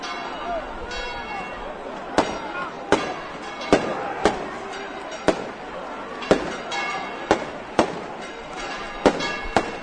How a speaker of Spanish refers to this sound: Ya suenan los cohetes, las campanas del campanil de este santuario de Rocío.